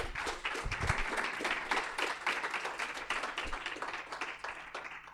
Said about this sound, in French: Je pense qu'on peut encore l'applaudir.